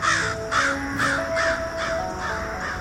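A carrion crow (Corvus corone) caws repeatedly, about six harsh, evenly spaced calls over a few seconds, loud against a faint outdoor background with no talking.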